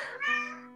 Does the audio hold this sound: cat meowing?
yes